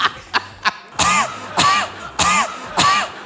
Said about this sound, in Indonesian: Iya, batuk gak pernah seserem ini ya.